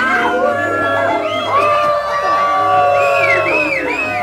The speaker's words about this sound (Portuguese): O pobre homem soprava, a flauta desafinava e a criançada vaiava.